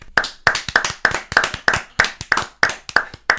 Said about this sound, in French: Ah ça s'applaudit